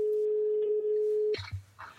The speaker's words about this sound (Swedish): nu ringer vi John. Jag ska bara ringa och kolla. På med högtalaren.